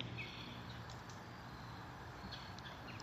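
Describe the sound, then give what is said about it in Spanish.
Faint birds chirp in short scattered calls over a steady outdoor hiss and low rumble, with no one speaking. “Escuchen cómo los pájaros acarician”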